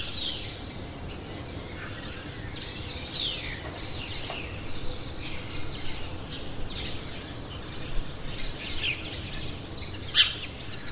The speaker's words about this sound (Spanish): Lo del canto de los pájaros ha sido uno de los temas que más ha llamado la atención a mucha gente durante la cuarentena, eh, muchos porque no se habían fijado hasta ahora, a lo que se añade también que el ruido del tráfico es que nos lo tapaba todo.